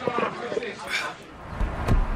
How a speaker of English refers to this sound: I'm probably okay. I open the window to stay alert.